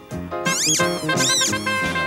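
A rubber duck toy squeaks in a few high, wavering squeals that rise and fall, loud, over steady musical backing.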